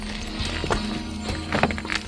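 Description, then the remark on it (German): Horses' hooves clop at an unhurried walk as a rider leads his horse down a path from a rise into a hollow with the others following, several uneven thuds over a low steady rumble, with no one speaking. “ließ sein Pferd Dancer einen Weg von der Anhöhe hinab in die Senke finden und die anderen folgten ihm”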